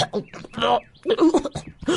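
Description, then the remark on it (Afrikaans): A voice acts out a bout of coughing and sputtering in short, strained vocal bursts with brief pauses between them, fairly loud, like someone clearing a blocked throat: the story character Diedrik Duif, a dove, coughing and clearing his throat. “Net toe Mani en Drietjie omdraai om weg te stap, hoor hulle hoe dat Diedrik Duif skielik agter hulle hoes en proes en keel skoon maak.”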